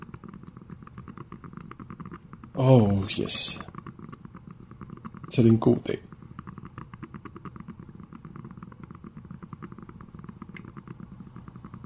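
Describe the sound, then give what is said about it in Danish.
A coffee machine in a small kitchen gurgles and bubbles steadily while brewing black coffee, a low continuous burble throughout, with two brief spoken phrases from a voice over it. “Duften, der begynder at sprede sig, den der blop-lyd, der kommer fra kaffemaskinen.”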